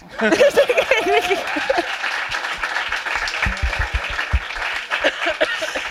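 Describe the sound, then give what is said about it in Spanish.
An audience breaks into sustained applause, a dense wash of many hands clapping at a steady loudness for several seconds, with some laughter and voices mixed in at the start. “Entonces, a poner si me aplaudís.”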